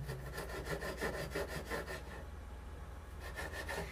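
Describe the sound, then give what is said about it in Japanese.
A knife saws back and forth through tough raw pork in a steady rhythm of rough, scraping strokes, with a brief pause before the sawing resumes near the end. “あっ外と切れないな君いやこれはねナイフが切れないというよりね豚肉がこうあらってるんだな”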